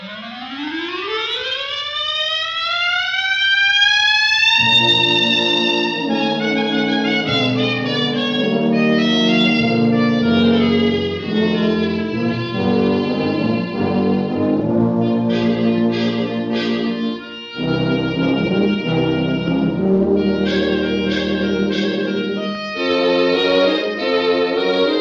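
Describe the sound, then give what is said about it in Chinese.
A solo clarinet, held raised high like a trumpet, opens an orchestral jazz piece in the 1945 film Rhapsody in Blue, which recreates the premiere, with a long, smooth upward glissando that swoops to a high wail, then the full band joins in with lively, dense, sustained playing. “刚刚的这个视频里面啊，我们可以看到单簧管吹的那个角度啊，单簧管那个是抬着小像小号那么高。”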